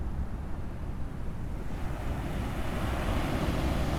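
Steady, broad wash of ocean surf rolling onto the shore, a continuous rushing roar with a soft swell building toward the end, fairly loud, with wind noise mixed in.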